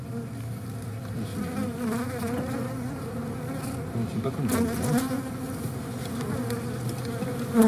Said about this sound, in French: les variations d'intensité du bourdonnement des abeilles en fonction des conditions environnementales